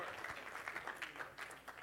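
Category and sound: crowd, audience clapping and cheering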